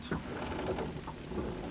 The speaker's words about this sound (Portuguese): De volta ao barco, nos deparamos com uma tempestade. Nos abrigamos na cabine e começamos a assistir a água que cai.